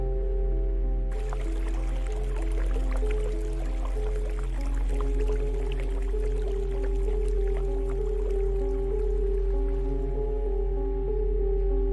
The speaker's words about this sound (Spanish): Había un silencio en general, interrumpido tan solo por el leve sonido del agua que corría.